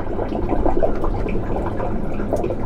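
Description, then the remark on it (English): Steady rush of meltwater flowing on glacier ice fills the scene, with occasional brighter drips and trickles popping out above the continuous wash, even in loudness throughout. “Seeing and hearing all this water move around up here really brings home that I'm standing on a massive source of future sea level rise.”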